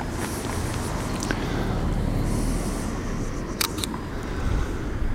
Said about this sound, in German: Oh, ein Auto. Hm.